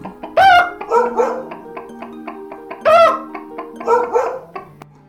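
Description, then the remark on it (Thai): A loud jumble of animal cries, with a donkey braying, a dog barking, a cat meowing and a rooster crowing, repeating in two overlapping bursts, as the four animals, stacked on one another, make their music together. “เมื่อเสร็จเรียบร้อย ก็จะส่งสัญญาณให้เริ่มทำเสียงเพลง เจ้าลาเริ่มร้องแบรแบรหมาก็เห่าโฮงโฮงแมวก็ร้องเหมียวเหมียวแล้วไก่ก็ขัน”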